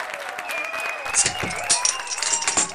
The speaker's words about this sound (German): Habe ich mir doch gedacht, habe ich mir doch gedacht, grosse Jubelstürme.